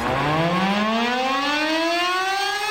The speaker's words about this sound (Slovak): Ešte takto na záver ranej show by sme vás chceli upozorniť, že aby ste sa nezlakli dnes, a v dopoludnejších hodinách bude v Jaslovských Bohuniciach cvičenie s použitím varovných sirén